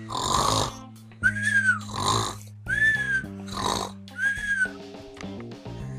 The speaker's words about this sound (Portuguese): Quando chegam lá, … estava roncando.